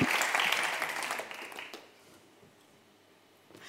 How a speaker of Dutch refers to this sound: Nou ja, groot applaus voor mijn vrijwilliger.